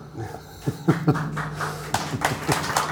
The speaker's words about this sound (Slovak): On nepovie a už mu tlieskate. No, no to tebe, tebe tlieskali.